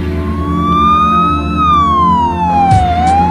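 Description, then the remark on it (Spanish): An approaching police patrol car's siren wails loudly in a slow rising and falling sweep, carried over a steady low engine rumble, with no voices. “Cinco minutos después, el taxista advierte por el retrovisor una patrulla de la policía.”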